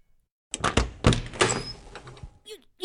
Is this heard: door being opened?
yes